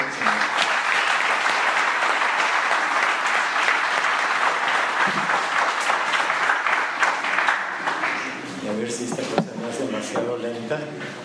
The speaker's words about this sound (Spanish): Así que denle un aplauso de gratitud